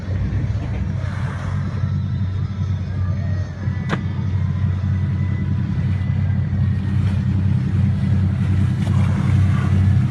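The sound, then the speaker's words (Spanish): A steady, loud engine drone of a motorboat whose passengers are filming whales, with wind and water noise over it and a brief sharp knock partway through; no one speaks. “las Roquetas este espectáculo que vieron los que iban arriba de esta lancha que grabaron las imágenes de las ballenas.”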